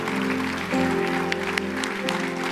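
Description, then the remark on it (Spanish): A church audience applauds those who raised their hands and said the prayer, with steady, dense clapping, a few sharper claps standing out, while sustained keyboard chords hold underneath throughout. “Y nosotros queremos aplaudirles, iglesia, aplauda.”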